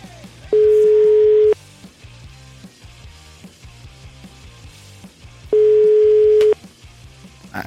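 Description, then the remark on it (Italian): A telephone line tone after a dropped call: two loud, steady one-second beeps about four seconds apart, with a quieter rhythmic background murmur underneath. “Eh, anche il telefono se n'è andato.”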